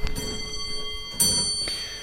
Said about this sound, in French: Une horloge comtoise du début du 19e siècle, une belle allégorie du temps au milieu de nous.